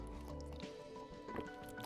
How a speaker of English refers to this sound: My throat is getting dry. I'm drinking this water.